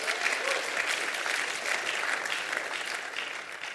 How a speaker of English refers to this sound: someone on the street was prayed for, and her hearing was healed. So again, let's cheer for that.